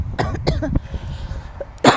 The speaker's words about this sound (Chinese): 激动，激动到咳嗽，天哪！